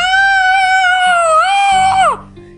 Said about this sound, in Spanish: Estaba todo oscuro y como los gritos ¡Ah! provenían de allí, entré. A cada ligero paso que daba, los gritos se amplificaban.